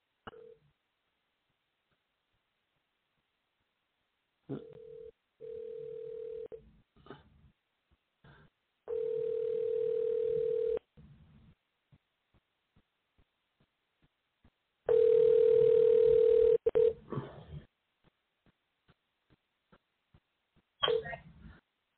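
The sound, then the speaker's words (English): A phone call being placed: short dialing clicks and tones, then a steady ringback tone that repeats in long two-second bursts with pauses between, fairly loud, with no one talking. “That was my studio calling.”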